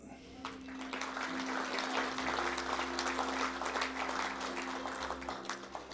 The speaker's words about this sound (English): Give them another clap.